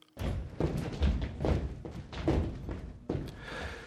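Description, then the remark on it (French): Dancers' bare feet strike a wooden gym floor in a run of dull, low thuds at an uneven pace, each impact soft yet solid, with no voices. “Aucun son donc, excepté le son des pieds nus frappant le plancher de bois du gymnase.”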